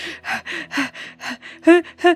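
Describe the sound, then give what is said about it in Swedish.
Rapid, heavy panting, about nine quick breaths in a steady rhythm, the last couple turning voiced and hoarse like someone out of breath. “Kristanna bara står där med dolken i handen och bara flåsar”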